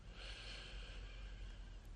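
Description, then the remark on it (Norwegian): A slow, steady, calm breath drawn in during a relaxation exercise with the eyes closed and hands over the eyes, a soft continuous airy hiss lasting a couple of seconds, fairly quiet, with no talking. “Rolig pust inn her.”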